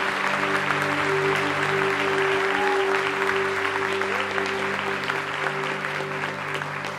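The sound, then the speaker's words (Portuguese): Steady audience applause for Jesus fills the whole stretch, a dense wash of clapping from many hands at an even, sustained level, with a faint tonal hum running underneath. “Por aplaudir, aplaude Jesus, bicho.”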